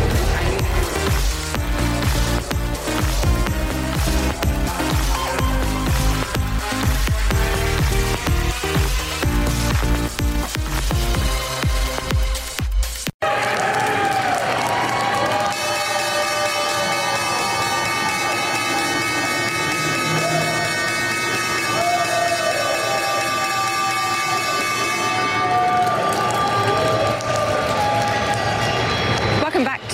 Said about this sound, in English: That was the opening bell for the final time this week, and another long week it's been.